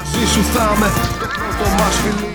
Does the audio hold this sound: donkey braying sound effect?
yes